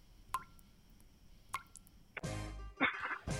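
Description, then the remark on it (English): Two crisp water drips plop one at a time from a leaky roof, about a second apart, clear against near silence, before a louder rushing burst of noise takes over. “Do the drips have you down?”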